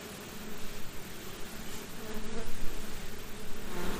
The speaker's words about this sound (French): Donc ici, c'est une ruche de production qui est destinée à faire du miel. Et c'est quoi comme espèce C'est euh, la caucasienne. C'est une abeille qui est rustique.